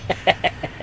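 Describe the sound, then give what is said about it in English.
A voice mimics the dramatic reveal instrument sting played when a leg is shown, with five short, clipped staccato bursts in quick rhythm, moderately loud, sounding almost like clucking. “I don't know, but like they have that they have that reveal um, instrument when they show her leg. It's like that”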